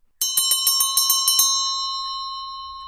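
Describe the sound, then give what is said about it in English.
A bright pub bell is struck rapidly about eight times in a quick clanging burst for last orders, then left to ring out and fade. “Right, I think I hear the bell for last orders tolling, gentlemen.”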